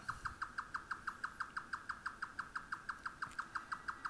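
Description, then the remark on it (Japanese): A grey nightjar's mechanical call: sharp, evenly spaced notes repeating about six times per second, steady and unbroken throughout, fairly clear over a quiet outdoor background. “まあ、平野部の、あ皆さんがお住まいのところはなかなか聞いたことがないような気がしますけども、このもう機械音的なね、このピピピピピピピとなかなか、これ本当にそんなんおんのみたいなね。”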